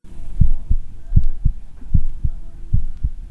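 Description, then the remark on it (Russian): A heartbeat plays through a speaker, steady paired low thumps repeating about every three-quarters of a second over a faint electronic hum, with no one talking. “А можно через динамики воспроизвести звуки, этим сердцем издаваемые, и вывести на экран графическое изображение этих звуков”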